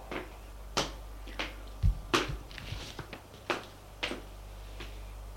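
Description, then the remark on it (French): Footsteps, around eight of them, land at a steady walking pace, each a soft, dull thud over a low, constant hum, with no voices. “Des pas.”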